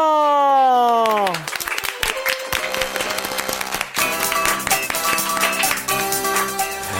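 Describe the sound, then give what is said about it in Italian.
A falling, whistle-like tone slides down before a burst of loud, dense audience applause and clapping breaks out, continuing steadily for several seconds with some faint tonal sounds mixed in. “Super applauso!”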